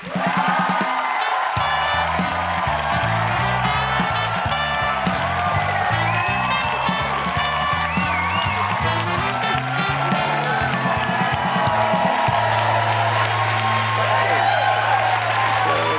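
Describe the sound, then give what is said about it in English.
A studio audience bursts into loud, sustained applause with cheers and whoops as actor and comedian Ricky Gervais is welcomed back to the show, steady dense clapping over a bright band-style musical accompaniment throughout. “crowd went berserk.”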